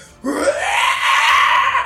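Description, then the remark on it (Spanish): A creature's first scream as it transforms bursts in after a brief pause, sweeping upward in pitch into a loud, shrill, sustained shriek that holds strong until the end, with no talking. “Escuchan este primer chillido, este primer llanto.”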